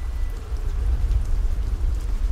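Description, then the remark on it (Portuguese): Steady, heavy rain pours down in a continuous wash, with a deep low rumble underneath suggesting a storm; no voices, just the dense, unbroken roar of falling water. “Só a tempestade, que estava cada vez pior.”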